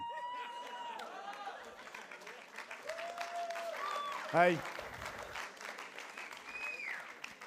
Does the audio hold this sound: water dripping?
no